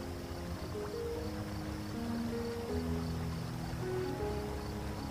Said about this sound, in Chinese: 你有些心生敬佩地聆听着源源不断的流水声，意识到水在大部分时间都是这样的柔和温润，但又如此持久绵长，而在有的时候却又可以爆发出惊人的巨大潜力